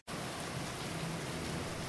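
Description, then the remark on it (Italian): Steady rain falls continuously on the rooftop of a skyscraper in a big city, a dense hiss of drops spread evenly across the whole clip after a brief moment of silence at the start, fairly loud and with no voices. “E il rumore della pioggia è l'unico suono che sento.”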